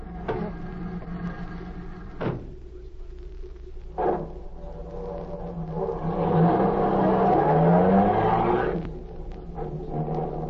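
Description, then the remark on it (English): A car engine idles with a low rumble, a couple of door-like thumps, then revs up loudly with rising pitch as the vehicle pulls away, settling back toward a steady hum. “Here's the car.”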